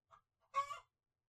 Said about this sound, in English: Seriously, the birds are like off the chain today.